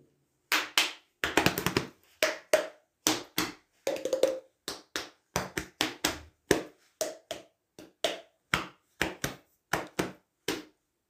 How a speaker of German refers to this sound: Dazu kann man die flache Hand gegen die Wange, gegen den Bauch, die Beine oder Arme klopfen. Natürlich nur so, dass ihr euch nicht wehtut.